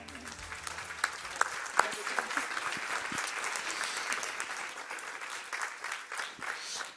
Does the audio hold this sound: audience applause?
yes